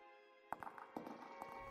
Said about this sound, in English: hurried footsteps. Wande whipped around, eyes scanning the too dark library. Click, clack, click, clack.